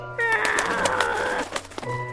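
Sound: bird cooing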